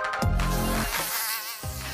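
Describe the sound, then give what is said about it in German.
A mosquito buzzes steadily for a couple of seconds, its thin whine wavering up and down in pitch as it hovers, with no voices present. “Und da sind sie wieder, die Mücken in meinem Kopf.”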